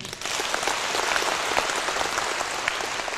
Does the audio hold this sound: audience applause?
yes